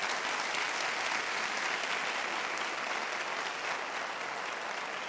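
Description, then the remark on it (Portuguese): An audience claps for Jesus at an evening service, steady for several seconds, a dense, even wash of many hands with no pauses or voices standing out. “Você podia dar um aplauso a ele por isso nessa noite.”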